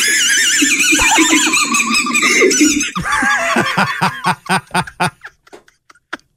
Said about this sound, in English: So whenever he breathed in or laughed, it made a squeak sound. even his doctors and nurses were laughing at him. and they got it out, and he's okay. But uh, I guess this is uh, so what it sounded like.